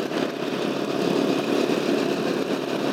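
A motorcycle engine runs steadily and fairly loud for the whole stretch, a continuous droning rumble with wind-like noise over it and no voices.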